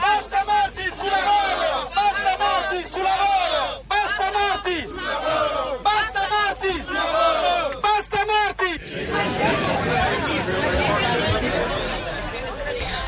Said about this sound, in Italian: la clip che avete ascoltato è presa dal sito di repubblica.it, eh, racconta la marcia di ieri dei berretti rossi, dopo la strage dei braccianti di Foggia c'è stata una manifestazione